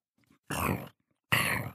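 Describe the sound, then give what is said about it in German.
Two loud, rough growling rumbles, each under half a second with a short pause between, a little bear's hungry, empty stomach grumbling, with no talking. “Da knurrt sein Bauch.”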